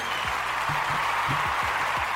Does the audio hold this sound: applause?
yes